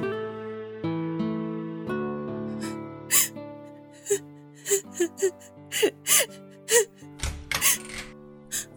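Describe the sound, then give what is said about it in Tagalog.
A person cries and whimpers in a bedroom in a string of short, gasping sobs, fairly loud, over soft sustained background music. “Narinig ko po kasi kayo umiiyak.”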